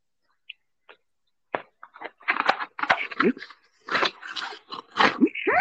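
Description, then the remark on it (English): Loud crunching and chewing of crusty pizza, with a few quick bites at first, then a dense run of crisp crunches and wet mouth sounds, no talking over it. “My pizza is banging. I ain't gonna lie.”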